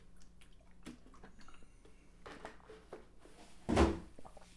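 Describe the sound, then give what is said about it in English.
Someone sips tea: soft handling and faint liquid sounds, then one short, louder slurp-like burst near the end. No one speaks. “I'm also going to, uh, as I take a little sip of this tea real quick”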